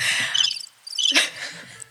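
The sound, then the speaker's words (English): Crickets chirp steadily in bursts of high, buzzing trills, moderately loud, with a brief pause near the middle and no voices present. “And, uh, and so that's why there were crickets in the mm-hmm. background.”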